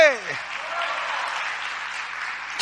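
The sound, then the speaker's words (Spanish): A church audience bursts into steady, loud applause for the Lord, a dense wash of clapping that holds evenly throughout, preceded by a brief falling vocal sound at the start. “Démosle un aplauso al Señor, hombre.”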